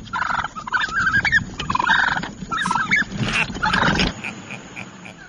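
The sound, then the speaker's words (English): Several wild turkeys, big birds coming up on a person, gobble and chatter in a busy, overlapping flurry of rapid warbling calls, continuous for several seconds with no one talking. “these turkeys are coming up trying to say, hey, "What's going on? What's going on?" And they're scary because they're big birds.”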